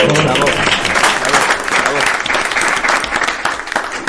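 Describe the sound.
Sustained audience applause, a dense steady wash of many hands clapping at full loudness for about four seconds, with faint crowd voices mixed in.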